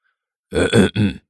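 A deliberate, put-on cough, two short throaty grunting bursts in quick succession, fairly loud and voiced, with no talking around it, like someone clearing their throat for attention, made by a teacher who has walked up to the lectern in a classroom.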